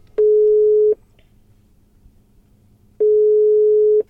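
A telephone ringback tone heard while a call is being placed from a traffic jam: two steady, clear beeps about a second long, separated by a long pause, with faint line hiss and no voices.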